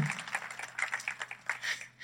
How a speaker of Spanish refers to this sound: Y pueden decir una vez más amén y darle un fuerte aplauso al Señor diciendo, yo seré esa iglesia.